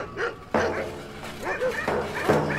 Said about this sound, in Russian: Вот залаяли в стойбище собаки — Потом и люди на улицу выскочили, испугались.